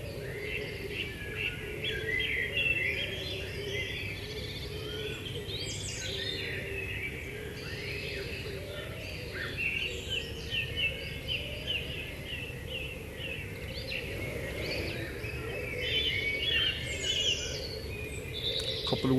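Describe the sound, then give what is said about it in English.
A dense dawn chorus on International Dawn Chorus Day fills the air, with many bird species singing and chirping at once in overlapping, varied phrases at different frequencies, over a steady low outdoor rumble. “you can hear how the different species they have different frequencies of their songs, kind of like different radio stations,”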